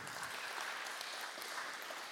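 A crowd applauds steadily for about two seconds, a dense wash of many hands clapping at an even level with no voices standing out.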